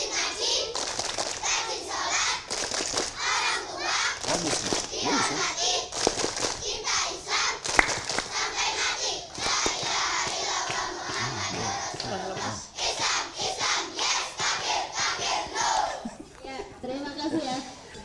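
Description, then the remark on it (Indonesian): A recording of the Indonesian children's clapping chant 'Tepuk Anak Soleh' plays: a group of children chant together in a loud, rhythmic call-and-response, with sharp hand claps punctuating the beat throughout, the voices rising and falling in steady bursts. “Kita setel aja ya. Tepuk anak soleh.”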